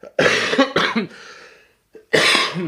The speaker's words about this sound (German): da muss ich schon husten und schlucken, wie ihr hört.